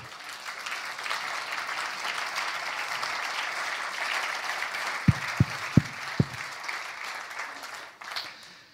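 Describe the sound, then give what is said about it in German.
A crowd applauds Jesus steadily for several seconds, a dense wash of clapping, with a few sharp low thumps near the end before the applause tapers off. “Komm, wir geben Jesus mal einen Applaus, okay?”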